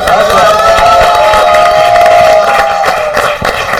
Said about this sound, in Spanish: Muchas gracias. Aplausos.